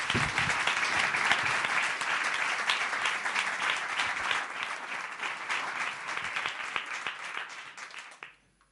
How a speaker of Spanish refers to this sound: Pues con este aplauso te subes a...